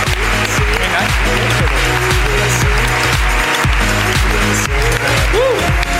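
Loud, steady audience applause that fills the whole six seconds without a break, with a few cheers and whoops rising above the clapping and music playing underneath.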